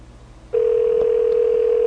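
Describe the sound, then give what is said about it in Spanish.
A steady electronic telephone ringing tone on a repeat call to the company RCP switches on after a brief quiet moment. It holds unbroken and fairly loud to the end, with no voices. “nuevamente las timbradas.”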